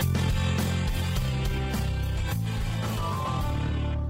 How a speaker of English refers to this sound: I think that's probably too loud, that music. I'll fix it.